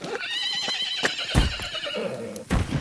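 A horse whinnies in a long, wavering neigh, while a few heavy hoof clops land at irregular intervals as a man tries to ride it. The sound is fairly loud, with no talking.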